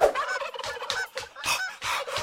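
Geese honk in a rapid, loud series of harsh, nasal calls, about six bursts overlapping closely together, as if from a small group. No one speaks.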